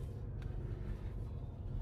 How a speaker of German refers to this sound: Wir sind weiter mit dem Auto unterwegs, denn wenn es in Anführungsstrichen nur noch 44 Hektar sind, die direkt zum Gestüt Schlenderhahn gehören, zu Fuß ist das Ganze doch ein bisschen weit.